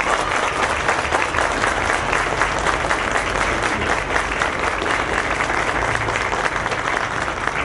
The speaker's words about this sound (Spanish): Así es que antes de terminar yo este pequeño discurso, me gustaría por ese tema que ustedes le brindaran un aplauso a la delegación y a quienes la encabezan.